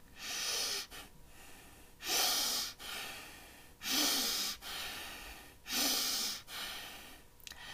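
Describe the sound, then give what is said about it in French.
Four sharp, forceful inhalations, taken in a row as if about to sneeze as a breathing trick to wake up, come in quick, even succession, each a loud breathy hiss separated by softer, airy breaths. No one speaks. “Vous avez bien entendu, où que vous soyez, il vous suffit d'inspirer trois à quatre fois d'affilée, comme si vous étiez sur le point d'éternuer.”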